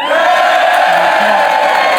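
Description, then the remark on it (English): An audience cheers loudly and steadily for about two seconds, voting for the return of the Tiny Andrew Collins sketch, a dense wash of voices with some whoops rising above the roar. “Uh, so who would rather have the return of Tiny Andrew Collins? Cheer now”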